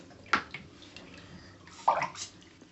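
Water sloshes and splashes in a bathtub during a little girl's and her little brother's bath, with two louder splashes standing out against a steady, softer background of moving water, with no talking.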